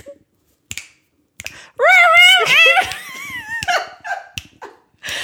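A dog howls along as if singing, a wavering, sing-song howl lasting a couple of seconds, rising and falling in pitch, with sharp clicks and snaps scattered before and after.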